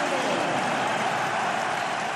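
A large stadium crowd applauds and cheers, a dense, steady wash of clapping with a roar of voices blended in, holding at an even, fairly loud level throughout without breaks.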